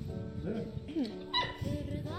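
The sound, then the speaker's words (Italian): A dog in a video, crying for its dead owner at her tomb, whimpers in a few short, high-pitched whines that glide up and down, heard over a dense background with voices murmuring underneath. “Guardate questo cane come era attaccato alla sua padrona e poi è morta. E lui va a piangere tutti i giorni davanti al suo feretro.”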